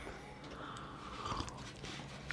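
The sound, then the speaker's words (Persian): Quiet sipping of tea: soft slurping and wet mouth sounds over a low background hiss, with a small swallow near the middle and no one talking. “من ببخشید این صدای چایی اگه میاد”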